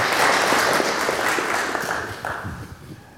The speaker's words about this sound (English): Why don't you give them a hand clap, both of them, for being here with us today?